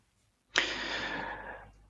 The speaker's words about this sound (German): Ah, jetzt atmet er schwer.